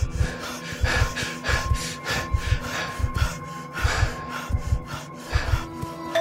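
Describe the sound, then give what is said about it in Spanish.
Heavy, rapid panting of someone out of breath from running: a steady run of harsh, breathy gasps about two per second, fairly loud, with a faint constant hum underneath and no talking. “A ti nadie te perseguía como hace unos días a Robin, pero puedes entender su angustia cuando ya te falta el aire en el camino.”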